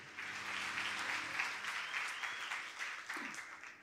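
Steady audience applause fills the whole stretch, a dense wash of many hands clapping at once, fairly loud, tapering slightly near the end with no voices over it.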